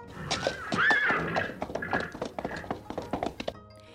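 A horse whinnies loudly up close, followed by a busy, uneven flurry of hooves stamping and thudding on the ground, with several horses sounding agitated together.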